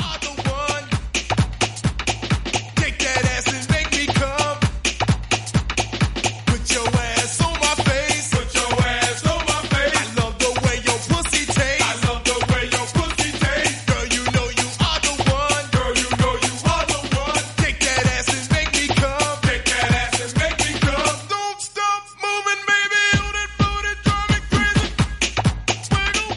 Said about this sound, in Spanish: imagínate cuántos años tendrá esta canción. Uf, será del 91, 92, por, por ahí. Eh, me suena a mí pues, de los primeros de los 90.